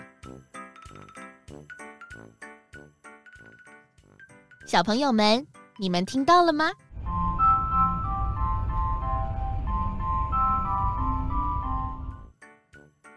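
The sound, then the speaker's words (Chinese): After a voice speaks, a Taiwan high-speed rail train's station arrival chime plays a steady, bright melody of several sustained notes for about five seconds over a low rumbling hum. “原来是高铁到站的铃声呢。”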